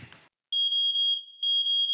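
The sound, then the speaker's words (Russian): A fire alarm sounds a loud, piercing high-pitched tone that holds steady, dips briefly, then resumes, after a short burst of scuffing noise and a moment of silence. “Внимание, пожарная тревога. Срочно покиньте помещение.”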